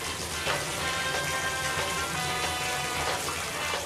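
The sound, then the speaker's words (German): A steady, dense hiss of shower water running continuously in a shower cabin in the morning, with irregular droplet spatter across the whole stretch. No one speaks. “kann man denn nicht einmal morgens in Ruhe duschen?”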